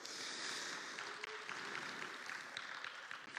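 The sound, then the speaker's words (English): An audience applauds itself after singing along, a dense crackle of many hands clapping at once for a few seconds with no voices over it. “Okay, give yourselves a nice round of applause.”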